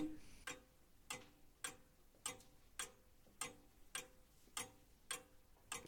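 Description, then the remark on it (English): A clock away from the office area ticks steadily, about ten even ticks with a slightly distant, roomy quality and no voices over it. The ticks are crisp but fairly quiet. “hear the the clock. The clock sounds further away, not in the office area.”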